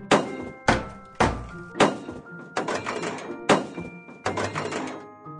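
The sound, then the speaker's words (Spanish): All the doors and the boot falling off a car on a road full of potholes: a series of about seven heavy metallic bangs and clatters at uneven intervals, each loud hit followed by a brief rattling, ringing tail. “Todas las puertas del coche se cayeron. Y el maletero también.”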